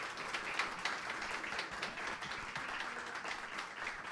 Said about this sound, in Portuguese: Aplauda mais forte o Senhor Jesus.